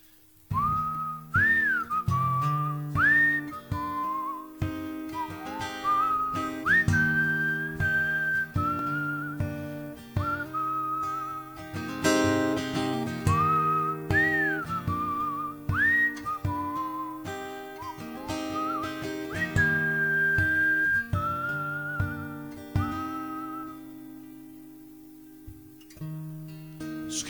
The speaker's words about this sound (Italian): Questo è il brano in italiano